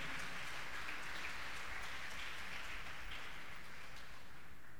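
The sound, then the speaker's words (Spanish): An audience applauds for the Lord, many hands clapping in a dense, continuous wash that holds at an even level throughout, with no voices. “Dele un aplauso al Señor, por favor, en esta hora.”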